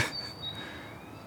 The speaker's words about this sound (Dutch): Eh, er zijn geluiden die heel dichtbij zijn, er zijn geluiden die super ver zijn. Op dit moment zit vooral communicatie tussen vogels.